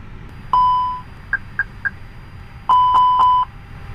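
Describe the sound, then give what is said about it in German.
Electronic cockpit self-test tones from an airliner as its systems are powered up on external power supplied by cable; the aircraft runs these tests by itself: a sustained beep, three short higher chirps, then a cluster of longer overlapping tones pulsing rhythmically, clear over a low hum. “Das sind Selbstteste, die jetzt der Flieger von alleine durchfährt.”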